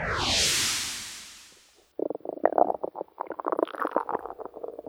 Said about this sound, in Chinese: 呵呵呵，这个声音好像每天我们都会听到。肚子饿的时候，就会发出咕噜咕噜咕噜的声音。不过，这种声音呢，正确的说法叫腹鸣，也就是身体的肚子、腹部在鸣叫。